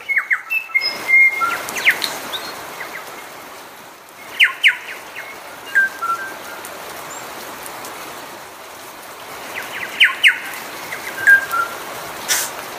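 Six or seven bellbirds sing to each other in one small area of lush, green native bush on the Milford Track, clear ringing notes and short bursts repeating at intervals over a steady background hiss like a stream.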